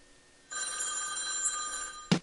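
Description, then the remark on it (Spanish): A telephone bell jingle on a radio music show, marking that something new is coming, rings in a bright, sustained metallic trill for about a second and a half, cut off by a brief thump at the end, with no talking. “cada vez que escuches ese timbre, eh, es porque se viene algo nuevo, ¿no?”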